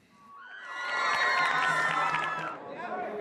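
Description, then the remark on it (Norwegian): A large crowd of fans cheers and shouts at the Wellington, New Zealand premiere of the first part of the Hollywood film trilogy 'The Hobbit', high excited voices and whoops swelling into a dense, loud roar that holds steady before easing slightly near the end. “Feiringen har pågått i to dager allerede.”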